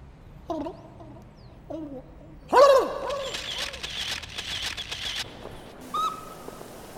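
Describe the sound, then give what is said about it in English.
A turkey giving a Thanksgiving "speech", lets out a few short clucks, then a loud, rattling gobble that trails into a burst of rapid warbling before one last cluck. Fairly loud, with no talking. “That was … with his Thanksgiving speech for this year.”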